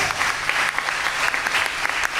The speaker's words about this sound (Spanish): Bendito sea Dios. Un fuerte aplauso al Señor, dale. Gracias.